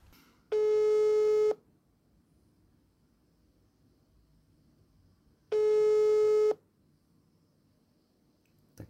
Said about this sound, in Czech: vyzvánějící tón bychom měli.